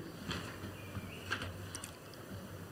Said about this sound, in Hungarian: Vegyél magad elé egy mikrofont, hogy a csámcsogásod jobban szóljon.